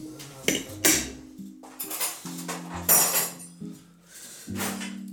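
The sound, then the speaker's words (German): Metal cutlery rattling and clinking as someone rummages through a drawer looking for a fork, a quick irregular series of bright jangling hits with short ringing tones, fairly loud throughout. “Ey, Bruder, ich hab keine Gabel, ne? Hinter dir in der Schublade, Bruder.”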